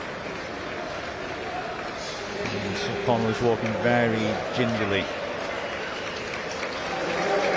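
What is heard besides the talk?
stadium crowd applause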